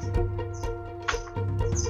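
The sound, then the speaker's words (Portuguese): A small bird chirps in the background, with short high tweets repeating over a steady low hum. No one speaks. “o som de passarinho no fundo é por minha culpa.”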